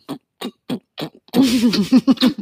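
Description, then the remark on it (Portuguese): A voice imitates the noise of a person scratching their throat: four short, raspy snorts in a steady rhythm, then a longer, louder gurgling, pulsing rasp. Fairly loud, with no talking. “Você coça a sua garganta fazendo aquele barulho esquisitíssimo do”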